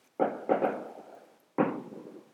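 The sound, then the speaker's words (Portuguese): Fireworks rockets burst outside: two booming bangs in quick succession, then a third after a short pause, each trailing off in a rolling echo. No one speaks. “Olha os rojões. É rojão mesmo, pessoal, não é efeito especial que eu coloquei aqui não.”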